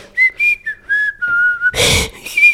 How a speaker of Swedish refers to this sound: Du visslar en visa.